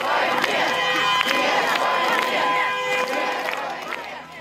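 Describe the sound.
A dense crowd of protesters shouts and yells together in the street in Moscow or St. Petersburg, Russia, protesting against the war, many overlapping voices raised at once in a loud, continuous roar with scattered sharper cries.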